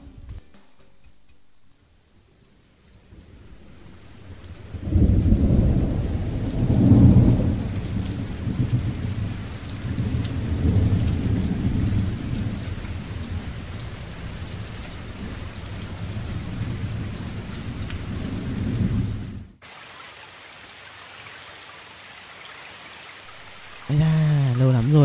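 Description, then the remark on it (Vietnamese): Heavy rain pours steadily with deep rumbles of thunder rolling underneath, loud, before cutting off abruptly near the end; a faint insect chirp persists at the start. “Ừ, chắc chắn sẽ là một perfect couple nếu như ấy không đi dầm mưa vì cả mưa to su như thế.”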